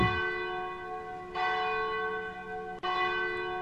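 The large bell of the Cathedral of Nossa Senhora de Aparecida in Brazil rings out at 14 minutes to 10 at night with long, sustained metallic tones, struck twice about a second and a half apart, each strike ringing over the lingering hum of the previous one, with no voices present.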